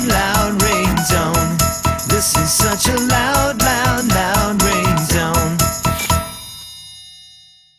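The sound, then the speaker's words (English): A loud, bouncy electronic phone ringtone jingle plays with a driving beat and bright synth melody for about six seconds, then stops and rings out into a fading tail. “This Is A Loud Ringtone”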